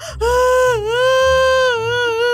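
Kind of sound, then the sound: human body sound, child crying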